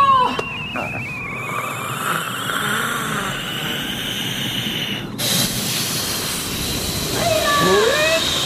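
A dinosaur blows hard to blow out a volcano, in one long, loud, rushing gust of breathy air that keeps going without a pause. A few squeaky, whistling tones rise over it toward the end.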